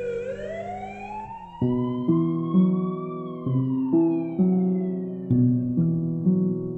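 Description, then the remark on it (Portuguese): An ambulance siren wails in one long slow rise and fall, loud, as the ambulance arrives after a man has been shot, while a steady sequence of sustained musical notes plays underneath from about a second and a half in. “Quando a ambulância chega, Nemtsov, um dos principais opositores de Putin, já está morto.”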